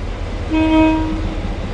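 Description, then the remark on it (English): A train rumbles along the rails with a steady low roar, and a short, loud horn toot sounds partway through. No one speaks. “Trains entering Britomart would no longer backtrack out the way they came in, but continue into a 3.5 kilometre tunnel under the downtown area.”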